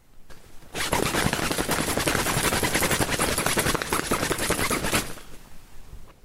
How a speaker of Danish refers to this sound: Du kan da høre bålet derude. Ja, bålet er stadig. Der er bål.